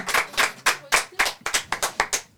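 A short burst of hand clapping, about a dozen sharp, bright claps in a slightly uneven rhythm, as if from a few people, with no talking.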